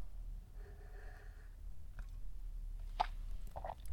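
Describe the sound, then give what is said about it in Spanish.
Quiet sipping of hot coffee: a faint drawn-out slurp, then a few soft wet gulps and clicks of swallowing over a low background hum, with no talking. “Y pues ahí pausa para trago de café.”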